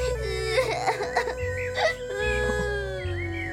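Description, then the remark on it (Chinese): A child cries in wavering, high-pitched whimpers and sobs, rising and falling over a steady, droning musical background that stays loud throughout. “孩子不准哭，”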